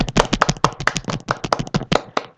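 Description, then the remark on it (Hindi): A few people clap for themselves in quick, uneven applause, a lively burst of overlapping claps lasting a couple of seconds with no talking. “तो एक मिनट एक मिनट एक घंटा थर्टी मिनट्स तालियां बजा दे खुद के लिए”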